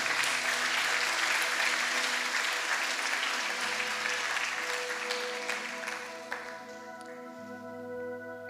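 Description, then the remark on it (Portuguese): A church audience applauds God in a dense, steady wash of clapping that gradually thins and fades, while sustained tonal notes, like a keyboard pad, ring underneath. “Aplauda Ele.”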